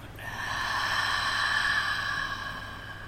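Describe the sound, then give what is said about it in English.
A slow, steady exhale through the nose during a guided breathing exercise, breathy and airy, swelling gently and fading over about three seconds with no talking. “breathing in and out.”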